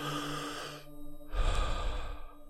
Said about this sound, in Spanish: Inhala profundo y deja salir. Inhala profundo y deja salir.